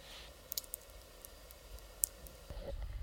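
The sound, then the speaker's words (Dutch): Food crackling faintly in hot oil, with a handful of sharp, scattered pops over a quiet, steady background hiss, then a low rumble near the end. “Ehm, deze knisperen. Hoor maar.”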